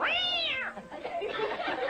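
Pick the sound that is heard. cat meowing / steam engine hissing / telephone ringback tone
cat meowing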